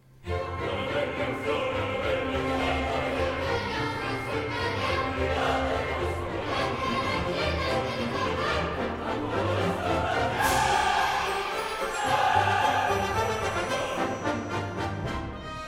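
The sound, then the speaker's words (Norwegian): A lively, festive orchestral procession from the second act of an opera, with full, bright ensemble sound, sustained loud throughout, with swelling brass-like chords and rhythmic accompaniment and no speech. “Slik lyder opptoget og festligheten i andre akt.”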